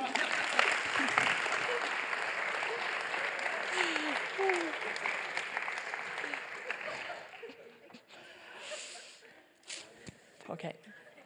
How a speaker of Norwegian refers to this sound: Du, veldig bra. Vi gir en skikkelig applaus.